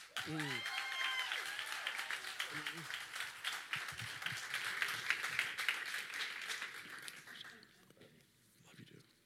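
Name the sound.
audience applause welcoming speaker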